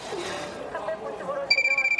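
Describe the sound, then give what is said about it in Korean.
A mobile phone starts ringing partway through, a rapid pulsing electronic trill with steady high tones, right after a stretch of muffled talking and room noise. “왔다. 내 손전화 우리 있다.”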